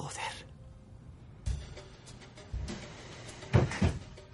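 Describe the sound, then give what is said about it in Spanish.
A wooden wardrobe door creaks and knocks as a closed wardrobe full of weapons of various calibres is opened, with several thuds and rattles spread over a few seconds against a quiet background. “Se acerca a un armario ropero cerrado. Al abrirlo, descubre en su interior multitud de armas de diferente calibre.”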